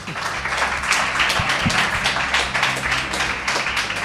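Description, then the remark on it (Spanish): A short burst of audience applause, many hands clapping in a dense, steady patter for a few seconds without any talking. “Bueno, muy chulo, un aplauso, por favor. Breve.”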